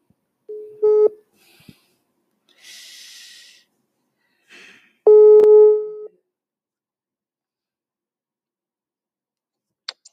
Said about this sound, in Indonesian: Jadi gue via telepon ya. Coba gue telepon